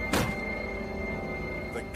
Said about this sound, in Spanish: El disparo no suena como un arma de fuego, suena más bien como alguien que le da una patada a una pared o una patada a un mueble, y la intensidad era mucho más baja.